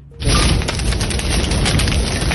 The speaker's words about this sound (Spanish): subió a ayudarle a los equipos de emergencia y grabó el momento exacto en el que las llamas consumen la vegetación en la montaña y hay que decir que el sonido es aterrador.